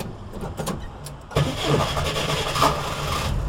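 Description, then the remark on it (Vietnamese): An old, many-years-used Soviet UAZ truck engine cranks with a few uneven, sputtering turns, then catches and roars into a loud, steady running rumble with a low throbbing hum. “sáng này có nổ đấy cái xe này nó lâu năm lắm rồi”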